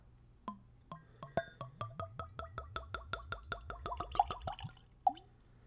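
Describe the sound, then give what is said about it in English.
Liquor is poured neat from a bottle with a natural cork stopper into a clean Glencairn tasting glass, a clear run of quick gurgling glugs that speed up and rise in pitch, ending with a last drip. “I use a clean Glencairn glass, which is a tasting glass. It's very nice. It lets you enjoy the spirit. So I've got one ready. Let's go for a pour.”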